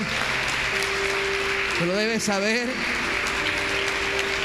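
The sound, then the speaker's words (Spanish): A church audience applauds for the Lord during a sermon in a dense, steady wash of many clapping hands that fills the whole stretch, while a man's voice speaks briefly over it partway through. “Dale grande ese aplauso.”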